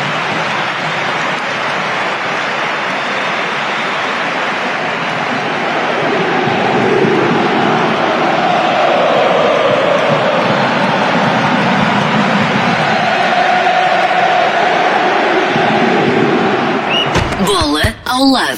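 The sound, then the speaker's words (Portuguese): A huge football stadium crowd of blue-and-white supporters applauds and cheers a player in a dense, continuous ovation that swells a little partway through and holds steady before cutting off abruptly near the end. “acabou por receber uma enorme ovação dos adeptos azuis e brancos também”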